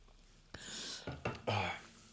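After a toast, someone takes a drink of Danish beer: a few short wet sips and gulps, then a breathy, satisfied exhale. No one speaks.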